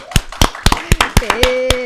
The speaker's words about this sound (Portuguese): Palmas, senhoras e senhores, para Alice Salazar. Palmas para ela!